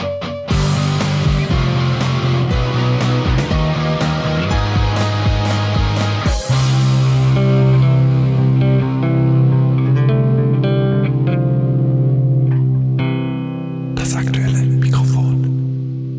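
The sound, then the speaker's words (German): A loud fanfare jingle, played to mark a cut, plays on its own, opening with punchy rhythmic hits before swelling into long sustained chords, with a washy, effect-laden flourish near the end. “Ja, dann machen wir jetzt einen Cut, Fanfare.”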